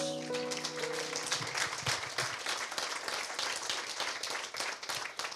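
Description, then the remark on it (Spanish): A crowd claps steadily in sustained applause for the Lord after a prayer, a dense, even patter of many hands with no voices standing out, while a faint sustained tone lingers briefly at the start. “¿Qué te parece si le damos un fuerte aplauso al Señor?”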